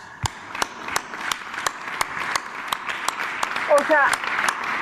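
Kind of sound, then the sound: crowd, applause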